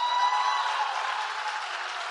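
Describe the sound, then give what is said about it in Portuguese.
An audience claps steadily for about two seconds, a dense, moderately loud patter of many hands that holds even and fades only slightly toward the end. No one speaks over it. “Essas horas, você aplaude, sim depois que eu termino de falar, você aplaude.”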